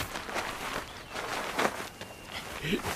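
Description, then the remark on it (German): A few footsteps shuffle as people step a few paces aside to line up, over a rustling background, irregular and fairly soft, with faint voices mixed in. “geht ein paar Schritte zur Seite und stellt euch auf.”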